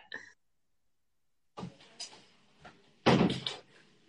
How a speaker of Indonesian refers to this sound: aku boleh izin ntar ya, aku boleh tutup pintu ya, ya.